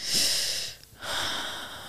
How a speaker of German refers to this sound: Oh, das war ein langes Atmen.